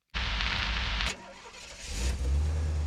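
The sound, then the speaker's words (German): A taxi's engine cranks and catches with a loud burst, settles briefly, then revs up as the taxi pulls away in Rome, prominent with no voices. “Mit dem Taxi durch Rom.”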